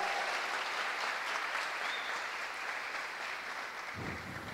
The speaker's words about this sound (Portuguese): Você que nos visita aqui pela primeira vez, quem é que está aqui pela primeira vez? Faz assim com a mão, só para te conhecer. Uma salva de palmas para essas pessoas.